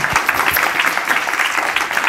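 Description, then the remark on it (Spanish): Steady, dense applause from a group, many hands clapping together in a bright, crackling wash that holds at an even loudness for about two seconds without any talking. “Un aplauso para eso.”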